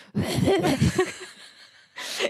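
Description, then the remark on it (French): A voice imitates the harsh, raspy cough the speaker had as a student in lecture halls of 2000 people: a second of rough, rapid hacking bursts, a short pause, then a final wheezy, breathy rasp. “Et en fait, les gens me reconnaissaient parce que j'avais une toux.”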